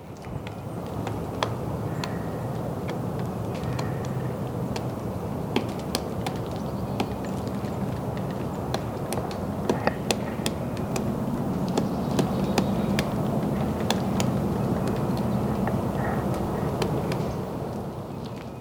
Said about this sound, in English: That was a woodpecker pecking on a tree at Griffey Lake in Bloomington, Indiana. In case your ear isn't totally tuned to the different kinds of peckings of various woodpeckers, that was a pileated woodpecker.